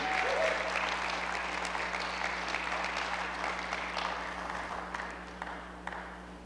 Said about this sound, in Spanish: ¿Alguien puede aplaudir a su Señor esta noche? ¿Alguien puede hacer ruido? Aleluya.